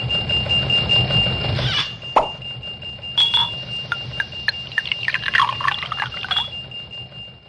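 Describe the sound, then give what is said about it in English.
A sustained ringing glass tone from swirling the top of a glass runs over a low gurgling pour of wine, then a sharp pop as a wine bottle is uncorked, followed by a quick series of bright clinks and dings. Clear, with no talking. “swirling the top of the glass, ding, ding, ding, ding opening opening the bottle, right, pouring the, the cork, pouring the wine.”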